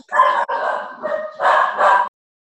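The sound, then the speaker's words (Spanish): A dog barks, loud and somewhat drawn out, with about four or five quick barks in a row that run almost together before stopping abruptly. “No es pastor. Él no ladra. Es que se nota, se pastor nunca ladraría.”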